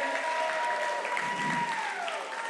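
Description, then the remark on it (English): A crowd applauds steadily and enthusiastically, with cheers and a sustained whistle rising above the dense clapping, which stays loud and continuous from start to finish. “can y'all make some noise for Dr. and Pastor Glenn Griffin and Dr. Shirley Griffin?”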